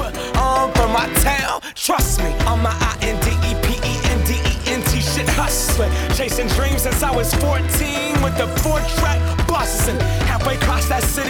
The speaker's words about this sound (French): Bon, face à ça, je mets un son un petit peu d'été également.